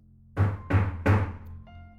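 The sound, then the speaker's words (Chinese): Three heavy, evenly spaced knocks on what seems to be the front door of a home, each a loud low thump with a brief rattle, followed by a faint hum with no voices. “可敲门声又响起来了。”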